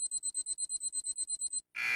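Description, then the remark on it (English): A timer alarm goes off with a fast, steady run of high electronic beeps, about a dozen in quick succession, then cuts off briefly before a burst of harsh noise. “See, the, with the timer, once it starts, it it starts. It goes.”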